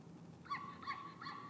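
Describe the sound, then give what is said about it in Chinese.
Three short, high-pitched yaps from a small Pomeranian dog, evenly spaced in quick succession, each with a nasal, honking edge over a quiet background. “好，听听那个博美的叫声了哈。”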